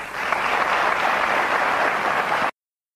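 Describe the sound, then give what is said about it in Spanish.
Steady, loud applause from an audience, a dense wash of many hands clapping at an even level for about two and a half seconds before cutting off abruptly. “Fuerte aplauso”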